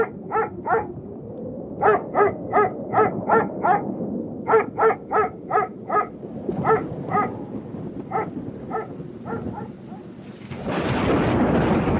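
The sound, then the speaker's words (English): A dog named Clover, locked in her cage in a yard on a cold night, barks over and over in quick, rhythmic bursts over a low rumbling background, then the barking stops and a loud wash of rain-like noise takes over. “Clover, locked in her cage, is barking at him.”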